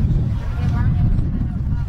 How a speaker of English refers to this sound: Trying to get the crowd mic to actually pick up what the referee is saying, but so dang windy you can barely hear him.